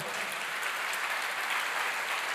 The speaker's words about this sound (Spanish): ¿Cuántos dicen amén? Eso se merece un fuerte aplauso al Señor.